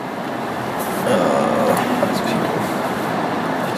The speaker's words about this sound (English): sorry, there's like people driving out of here. It's not much room to kind of get in and out of here. So you gotta let these cars go by.